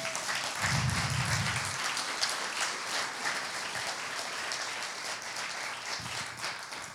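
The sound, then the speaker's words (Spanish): A crowd applauds steadily for about seven seconds, a dense, even wash of many hands clapping at once, holding a fairly constant loudness with a few low thumps mixed in. “Dale un fuerte aplauso a eso.”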